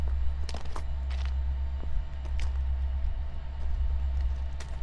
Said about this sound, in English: The noise passes along with a small local train, and we continue to wait.